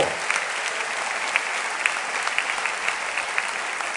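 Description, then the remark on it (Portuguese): An audience applauds the name of the Lord, a dense wash of many hands clapping together with a few sharper claps standing out, sustained evenly throughout with no voices. “Aplauda o nome do Senhor.”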